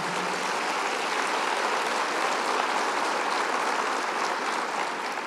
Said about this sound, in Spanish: Cuántos un aplauso al Señor por ellos, los de la cámara.